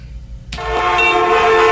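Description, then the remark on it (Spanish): Car horns in a traffic jam: a short low rumble of idling traffic gives way to loud, overlapping honks that blare together and hold steady until the end. “Estás en el trancón.”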